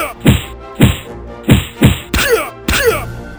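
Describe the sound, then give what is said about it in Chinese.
A flurry of punches landing, as Little John punches a steward hard on the head: four sharp, heavy thwacks in an uneven rhythm, then two rougher, noisier blows with a scraping edge. No one speaks. “一个箭步随即追上，管家还来不及推门，脑袋瓜子已经狠狠地挨了一拳。”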